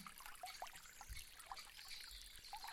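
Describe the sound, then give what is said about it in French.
Water trickles steadily while small droplets splash and drip in bright, scattered plinks as paddles dip into the water and rise again in a steady rhythm. It is fairly quiet, with no voices. “Plongeons et jeter de gouttelettes, son cristallin,”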